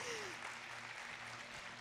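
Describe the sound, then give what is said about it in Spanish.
An audience gives strong applause to the Lord, a dense, steady wash of many hands clapping at once that stays at an even level throughout, with no individual claps standing out. “Dale un fuerte aplauso al Señor, por favor.”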